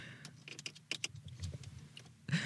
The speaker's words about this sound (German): ja kannst du ganz kurz bitte den Schlüssel reinmachen und ich will das Fenster hochmachen